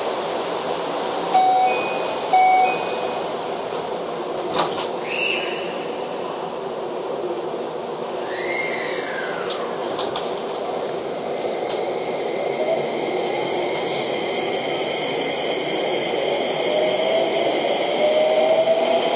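A Keio 5000 series train on the Motoyawata–Hashimoto run departs from platform 2 toward Ogawamachi station and runs steadily, its broad rumbling roar overlaid by rising and falling motor whines, a few brief high tones, and faint clicks.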